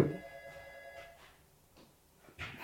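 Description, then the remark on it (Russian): A desk telephone rings with a steady electronic tone for about a second, then stops, leaving quiet background noise and a soft thump near the end. “Подними трубку, скинь ее просто. Там, за столом.”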